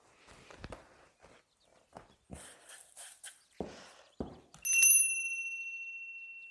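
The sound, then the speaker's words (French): Cornflakes being crushed inside a folded packet: a series of irregular crunching and crackling bursts, followed by a bright metallic ding that rings out and slowly fades. “une dernière fois, je mélange mes cornflakes, je replie mon petit paquet et j'écrase.”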